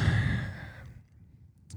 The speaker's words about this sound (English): Oh, big, big yawn, big yawn.